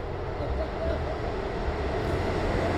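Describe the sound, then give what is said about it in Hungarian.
A train idles at a station, about to depart, with a steady, continuous low rumble and hiss that fills the whole moment, even in loudness, with no distinct announcements or clear voices. “ebben benne van az, hogy a, a vonat is benne van, ami mindjárt elmegy.”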